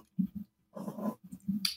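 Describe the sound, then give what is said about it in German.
A cat makes a few short, low, throaty calls, then a longer rumbling grumble, and finishes with more brief murmurs and a sharp hissy burst. The sounds are moderately loud, with no talking. “Irritiert dich meine Katze.”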